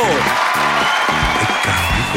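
Loud, continuous applause from a crowd with cheering and shouted voices mixed in, welcoming a guest onto a show, filling the whole couple of seconds without a break.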